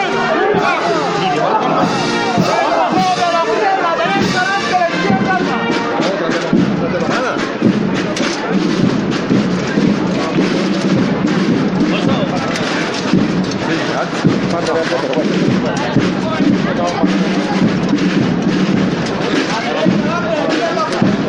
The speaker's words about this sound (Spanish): Todo ha salido sin problemas y suenan los vivas desde el interior del paso de palio.